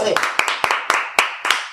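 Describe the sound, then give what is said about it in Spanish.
Sharp hand claps land in a steady rhythm, about six or seven in under two seconds, loud, with a faint voice-like murmur running underneath. “Sin y un aplauso.”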